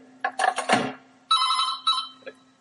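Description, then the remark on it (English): A telephone rings in several short, bright electronic bursts, a melodic ringtone pattern repeating with brief gaps over a faint steady hum. “Sorry, the phone.”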